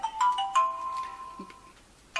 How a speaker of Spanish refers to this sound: Nada, es el teléfono, no lo he apagado y cosas de... Ya está, solucionado, ya no suena el teléfono.